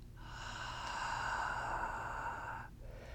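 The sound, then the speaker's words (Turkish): A long, steady breath released through the mouth during a guided breathing exercise, after breathing in slowly through the nostrils and holding it, a soft airy whoosh lasting over two seconds, clear with no talking. “Ağzından serbest bırak.”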